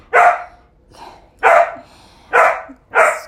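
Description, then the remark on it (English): A dog named Nala barks four times in loud, sharp bursts with a softer yip between the first two, spaced unevenly across a few seconds. No one speaks. “Nala, Nala, she's agreeing with me.”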